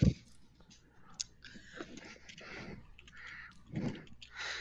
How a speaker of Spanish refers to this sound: No sé, vale buscarla, ya escuché que estás tecleando.